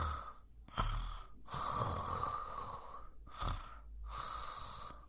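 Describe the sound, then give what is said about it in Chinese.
A voice imitates a firefly and a cricket snoring: a series of breathy, rasping snores, about four long drawn-out breaths separated by short pauses, steady and moderately loud, with no talking. “两道熟悉的呼噜声响了起来，是萤火虫和蟋蟀。”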